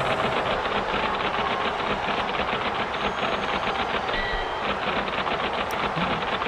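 Rapid, steady typewriter clacking keeps a fast, even rhythm, forming the beat of a theme tune over a constant loud wash of noise, with no voices.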